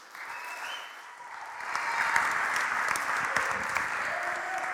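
Steady applause from a crowd welcoming a speaker who will give the sermon fills the whole stretch, growing a bit louder midway, with a few whoops and cheers, some from a couple of kids, rising above the clapping.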